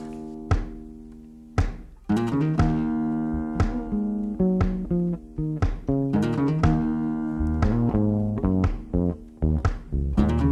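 A Brazilian song plays as a musical break on the radio station Cause Commune, an instrumental stretch of bright, plucked chords with sharp rhythmic attacks and a steady bass line, moderately loud, with no voices.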